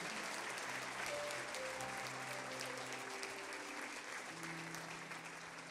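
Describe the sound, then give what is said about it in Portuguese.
An audience at a church service claps steadily for several seconds to applaud the Lord, a dense, sustained wash of applause, with soft held musical notes faintly underneath. “Isso, aplauda o Senhor.”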